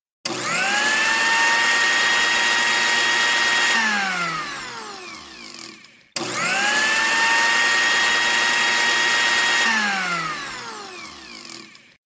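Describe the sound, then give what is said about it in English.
A blender blending a smoothie of two cups of strawberries, one banana, half a cup of Greek yogurt and half a cup of milk runs twice in close succession, each burst a loud, steady motorized whir with a high whine that holds for a few seconds, then slows and winds down before stopping. No talking. “Well, we better put it in the blender.”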